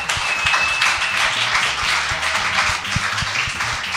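A steady round of applause from a group, dense overlapping claps sustained loudly for several seconds with a few sharper individual claps standing out.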